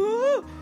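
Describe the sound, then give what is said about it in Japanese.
A single voiced moan from a man, rising in pitch and then sliding down before cutting off. He is imitating his own startled voice when buffeted by wind outside. It is a brief vocal imitation with no other sounds. “これは風に煽られてびっくりしてる僕の声なんですけどそのまあ風が「う”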